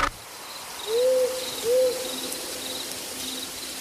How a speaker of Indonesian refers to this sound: Dapat pula dibayangkan betapa seramnya tempat itu di malam hari. Gelap gulita, jauh dari perkampungan, hanya diramaikan oleh suara serangga dan teriakan burung malam yang mendirikan bulu roma seperti burung hantu dan culik-culik.